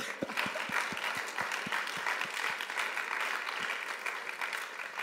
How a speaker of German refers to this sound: Einmal Applaus an euch selbst.